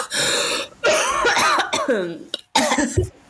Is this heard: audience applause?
no